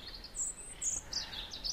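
A European robin sings a quick series of high, thin warbling phrases, fairly faint, with short gaps between notes over a soft outdoor background hiss.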